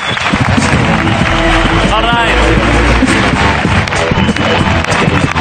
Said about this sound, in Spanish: Un aplauso para Pablo Carreño y Marcel Granollers.